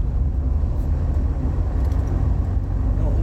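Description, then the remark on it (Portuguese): Steady, heavy low rumble of road traffic with a truck's engine droning as it crosses in front, holding an even loudness throughout with no distinct pass-by and no voices. “cara, já é um caminhão, tu vai querer cruzar minha frente, minha frente, cria.”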